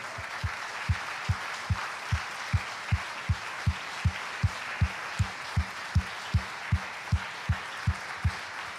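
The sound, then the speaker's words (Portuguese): An audience at a church service claps together to praise the Lord in a steady, rhythmic beat, roughly two claps per second, with a continuous wash of crowd noise under the evenly spaced, fairly loud claps and no voices. “Não desanime, aleluia, vamos aplaudir o Senhor, vamos bendizer.”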